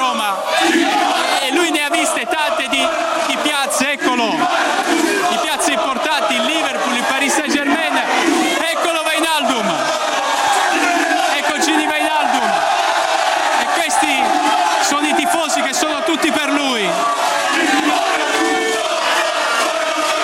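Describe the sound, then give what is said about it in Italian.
A dense crowd of AS Roma football fans at Ciampino welcoming the club's new midfielder roars continuously, with overlapping shouts and rising chants blending into a loud, steady wall of cheering that never lets up. “Si aspettava tutta questa accoglienza da parte dei tifosi della”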